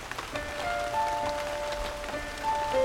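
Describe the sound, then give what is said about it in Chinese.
Steady rain patters down on a person in a dense, crackling hiss, with scattered sharper drop ticks, while a sustained soft tonal hum, like faint background music, lingers underneath throughout. “雨滴无情地打在我身上。”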